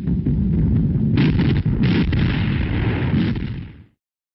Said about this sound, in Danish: Und immer wieder hageln die Granaten unserer schweren Artillerie auf den Feind. Vor uns der Rhein.